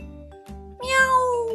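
Wilbur the cat, frightened, lets out a loud, drawn-out yowl after a couple of low, brief tonal bursts, the cry rising sharply in pitch and then sliding downward as it fades.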